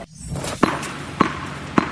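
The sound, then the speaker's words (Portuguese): A tennis ball bounces three times at an even, unhurried pace, each impact a crisp, hollow pop, over a faint background hum with no voices. “Este é o som de uma bola de ténis a bater.”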